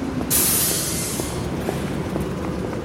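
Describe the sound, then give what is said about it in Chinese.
Dense, congested traffic at Tianfu Square with buses, bicycles, motorcycles, taxis and people crossing on foot; a steady engine rumble with a sharp, loud air-brake hiss early on that fades back into the continuous traffic noise. “现在我们在天府广场正在录制，可以看见车流非常的拥堵啊，公交车、自行车、摩托车，然后 taxi，还有各种各样的交通设备混搭在一起的声音，还有人过马路的步行。”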